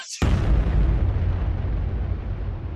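A sudden, loud explosion bursts in after a brief hiss, followed by a deep, rumbling roar that lingers and slowly fades over a couple of seconds. No one speaks.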